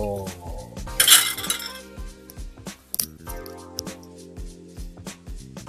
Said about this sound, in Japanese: 誰かお付き合いいただいたんでしょうかわかりませんけども、おしゃべりの方は止めて、食器洗いに集中したいかななんていうふうに思います。